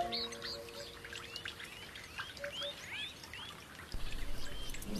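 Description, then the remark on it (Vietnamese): Many black-bellied plovers, including young birds, call over one another in the rain, short rising and falling chirps repeated quickly, with a soft patter of rain beneath, and no voices. “Đối với những con chim choi choi vừa bị từ chối, giải pháp sẽ đến một cách tự nhiên khi trời ngừng mưa.”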